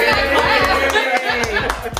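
A short, steady round of applause from a few people, with quick overlapping claps mixed with lively chatter and some chuckling throughout.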